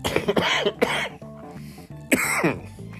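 Several harsh coughs in quick succession, then a pause and one more forceful cough, with a steady tonal background, likely music, running underneath.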